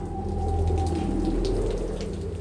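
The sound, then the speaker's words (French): A cold rain starts to fall in a steady, continuous, even hiss over a low, constant rumble, with no voices and no change in loudness throughout. “Ça y est, il pleut.”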